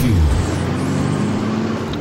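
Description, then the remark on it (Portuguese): A loud engine revs in a truck racing segment jingle, its pitch dropping sharply at first and then holding at a steady, throaty drone for about two seconds, with no voices. “Solta a vinheta da Truck.”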